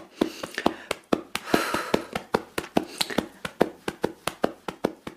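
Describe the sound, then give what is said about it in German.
Hands pat alternately on the shoulders in a butterfly hug exercise, a steady, quick rhythm of about four light taps per second, with a soft breath and rustle of clothing partway through. “es gibt eine schöne Übung, die heißt die Schmetterlingsumarmung. Die mache ich jetzt einfach mal mit euch und ganz gerne mitmachen.”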